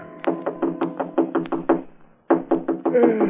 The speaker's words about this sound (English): It was almost three in the morning when Andy knocked on my apartment door.